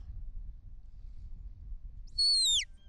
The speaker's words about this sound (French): Les sifflets euh, anglais, hein. donc celui-ci vient d'Angleterre. Euh, il faut le mettre entièrement en bouche. Il a deux trous.